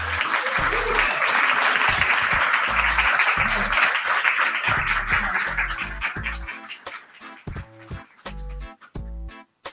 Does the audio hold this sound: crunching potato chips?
no